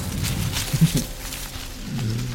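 Rustling in a bush, a brief burst of dry, crackly movement with a few sharper crinkles, over a low rumbling undertone. No voices are heard.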